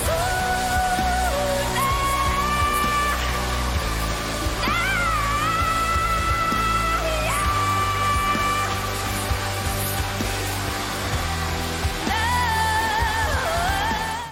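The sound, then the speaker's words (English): A loud, dense stretch of heavy rock with thick low end and wailing, bending vocal or guitar lines, driving steadily at full volume before cutting off abruptly at the close. “heavy rock or whatever, and it's yeah.”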